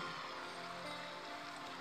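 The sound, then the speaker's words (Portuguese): A nearby stream burbles steadily over rocks, a continuous soft rush of flowing water with no pauses and no voices. “Ouça também o doce som das águas de um riacho que está bem próximo”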